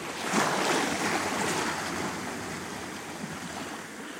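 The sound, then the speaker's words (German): Sea waves wash steadily onto a beach, a broad rushing surf that swells loudest early on and then settles into a constant roar, with no voices present. “Und ich kann dann selber immer, wenn keiner mal da ist, dann drehe ich mich mal um und genieße selber das Meer.”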